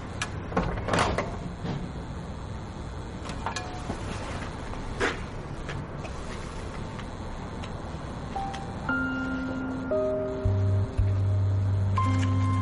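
A man tries to open the glass entrance door of an apartment building: a few sharp clicks and rattles come in the first seconds, followed by a steady, low droning tone with a few higher held notes.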